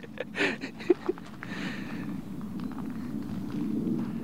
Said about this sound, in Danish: Nu kommer den igen. Ja, nej, det er bare en almindelig flyver.